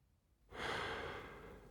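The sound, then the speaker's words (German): A drawn-out, breathy, leisurely yawn from a person who is stretching begins after a brief moment of quiet and continues steadily to the end, fairly soft, with no talking. “Ich gähne genüsslich, strecke mich und lasse meinen Blick weiter nach oben wandern.”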